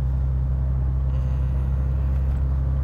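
A car is driving with a steady, heavy low rumble of engine and road noise, recorded as a test audio sample while driving. The drone holds constant throughout, with a soft hiss over it and no voices.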